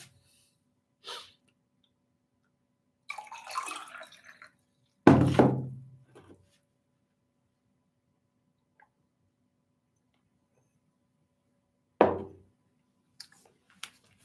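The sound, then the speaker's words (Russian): Someone drinks water from a glass: a soft click, some brief rustling, then a solid knock as the glass is set down, and another thud after a long silence. “Воды попью.”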